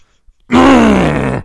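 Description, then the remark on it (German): A man vocally imitates the strained grunt made after the 20th weightlifting repetition: one loud, sustained groaning "huaa" of about a second, pitch sliding slowly downward, with nothing else around it. “was machst du für ein Geräusch so nach, nach der 20. Wiederholung?”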